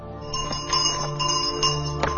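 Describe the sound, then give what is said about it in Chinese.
A crisp bell on a green bicycle, with green uniform and green mailbag, rings repeatedly in China in quick, bright metallic chimes, about five or six strikes with a sustained high-pitched shimmer between them over a low background hum. “绿色的制服，绿色的邮包，绿色的自行车，伴随着清脆的铃声。”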